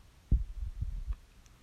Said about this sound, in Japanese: その子の心臓のドキドキが伝わってくる鉄砲に撃たれて死んでいく鳥みたいに弱々しい